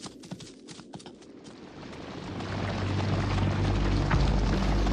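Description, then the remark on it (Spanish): Horses' hooves clip-clop, a few distinct hoofbeats at first, then swelling into a louder, dense rumbling thunder of hooves as soldiers' horses reach an empty village street at dusk. No voices. “Los caballos, que habían luchado y corrido todo el día, detuvieron el paso y empezaron a comerlas”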